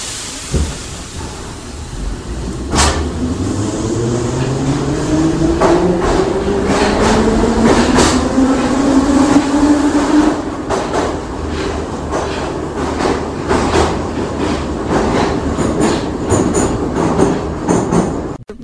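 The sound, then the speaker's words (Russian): A metro train, its doors just closed, rumbles along at speed toward Uralskaya station, its motor whine rising steadily as it accelerates, with sharp rhythmic clacks from the wheels over rail joints and a constant loud roar throughout. “Осторожно, двери закрываются. Следующая станция Уральская.”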